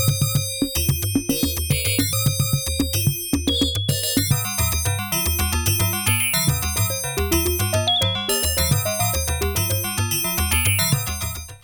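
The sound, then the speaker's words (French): A slow, melodic music theme carried by small chiming bell tones, with a steady bass pulse underneath, playing continuously at moderate volume with no voices. “On va garder ces petits sons de cloche.”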